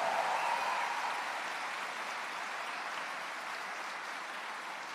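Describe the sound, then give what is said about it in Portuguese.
A church audience applauds Jesus in a steady, dense wash of clapping that holds evenly for the full five seconds, fading only slightly, with no voices rising above it. “Você pode aplaudir mais forte a Jesus.”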